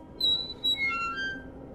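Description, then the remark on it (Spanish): The unlubricated wheels of a wheelchair squeak in a few thin, high-pitched squeals as it advances slowly, each squeal sliding lower in pitch, over a faint low rumble. Fairly quiet, with no voices. “pronto aquellas ruedas avanzaron lentamente, rechinando por su falta de lubricación, dejando ver lo que sobre ella se montaba.”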